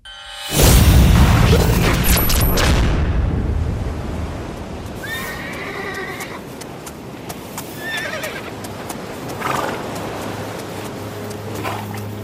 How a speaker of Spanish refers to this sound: escucho caballos, ¿no? Es la de caballos para empezar, o con caballos. Sí, sí, es la de caballos, con caballos, y que no de caballo, pero sí, muy bien.